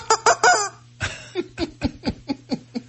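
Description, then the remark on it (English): A squeezed rubber rooster toy squawks: three shrill, squeaky cries in quick succession, then a steady run of about eight wheezing, rhythmic honks, fairly loud over a low hum. “Now, if you squeeze him somewhere else, is there a different noise?”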